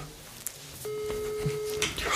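A phone's ringing tone on an outgoing call to a friend sounds once, a steady mid-pitched beep lasting about a second, heard through the line over faint background noise and a few soft clicks.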